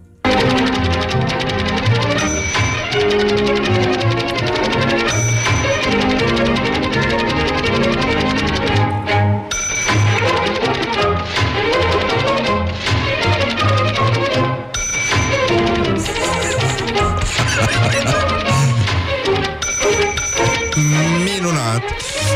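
Lively orchestral music with rapid typewriter clacking woven into the rhythm, broken by a bright ding of a carriage bell now and then. It plays loud and steady throughout.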